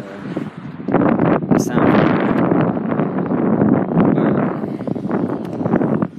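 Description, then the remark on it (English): Wind buffets the microphone in a steady, loud, rumbling roar that fills nearly the whole recording, with gusty surges and brief crackles over a heavy low-end blast. “Okay, I'm, I'm just a little windy right now. So y'all probably gonna get it.”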